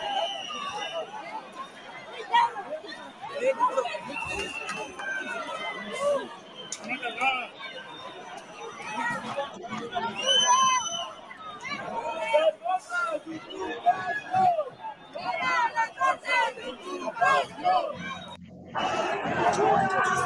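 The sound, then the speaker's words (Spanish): A dense protest crowd of many voices shouting and chanting together "fuera las fuerzas de ocupación" (out with the occupation forces), loud and continuous, with rising yells and a noisy, agitated mass of sound throughout. “El grito es fuera las fuerzas de ocupación, ¿eh?”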